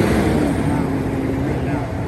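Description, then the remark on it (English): Steady roadside traffic rumbles continuously at a Jeep booth, a dense low-frequency drone of passing vehicles and heavy trucks, with a faint voice murmuring underneath. “We've got a lot of traffic noise going on.”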